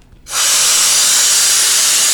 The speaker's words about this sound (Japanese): で、しかもその隙間もちゃんと布テープで 塞いでいこうっていうことなんですけど、えー、この防音壁でできた箱に工事の機械を入れて、どのぐらい音が変わるか 実験しました。